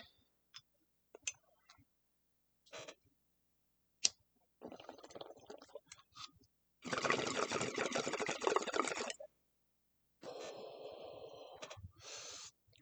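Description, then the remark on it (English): A few sharp clicks like a lighter, then a loud, steady gurgling bong hit of weed from a Sci Fi Glass Big Blue bong, water bubbling for a couple of seconds, followed by a softer hissing draw. No one speaks. “While you're thinking about that, we're going to take our first hit”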